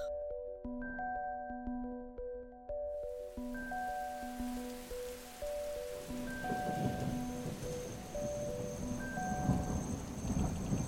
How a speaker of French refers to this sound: La pluie qui frappait le toit en zinc avait succédé au violent orage qui avait tonné toute la nuit, déchirant le ciel d'éclats métalliques